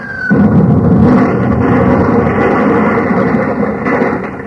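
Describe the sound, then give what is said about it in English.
A loud explosive blast from Nazi enemy fire bursts in suddenly, going by like lightning, then rolls on as a heavy, roaring rumble of noise for several seconds, deep and dense, with no voices. “But man, did you feel that blast go by like lightning?”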